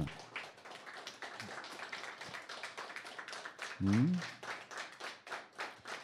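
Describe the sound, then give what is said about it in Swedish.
A small group claps in applause for a colleague on his last radio broadcast, a steady patter of quick claps that runs the whole time, with a short murmured voice briefly breaking in midway. “Nästa vecka sänder vi inte, så en applåd”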